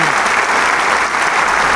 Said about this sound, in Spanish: toman de las manos los solistas con el maestro y agradecen con una reverencia al público. Ante el aplauso más que generoso, anticipado y también